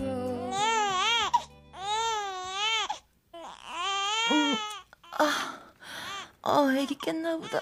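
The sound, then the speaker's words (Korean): A baby cries loudly in long wailing bursts with gasping breaths between, then the cries break into shorter, choppier sobs toward the end. “어, 우리 애기. 자장, 자장. 아이고, 착하다.”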